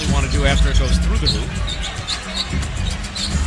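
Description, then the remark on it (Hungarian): A basketball crowd at a Nets game against Phoenix boos after James Harden loses the ball out of bounds, a dense, sustained roar of many voices that stays loud throughout, with scattered higher shouts and whistles breaking through. “És lehet hallgatni a közönséget. Ne, nem örültek. Megy a búzás nagyon keményen.”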